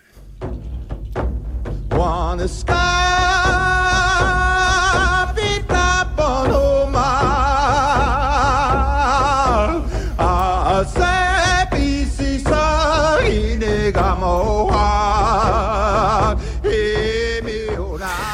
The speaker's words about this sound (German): Das ist ein Gesang der Cree und es geht um den Sonnenaufgang.